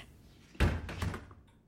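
A woman leaving an office closes the door behind her with her back; it swings shut with a solid low thump, followed by a couple of quick rattling knocks as it settles into the frame, alone against quiet room tone.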